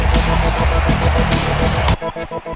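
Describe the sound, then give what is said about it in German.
A loud, rumbling lion roar fills the first two seconds, thick and heavy, then cuts off into a short rhythmic pulsing beat with no voices. “Radis Erben, der Löwen-Podcast. Löwengebrüll.”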